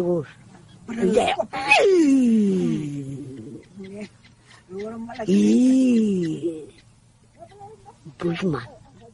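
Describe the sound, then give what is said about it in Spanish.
A voice imitates a lion's roar: two long, groaning calls that slide downward in pitch, fairly loud, with short breathy bursts before and after. “También se oye cuando ruge.”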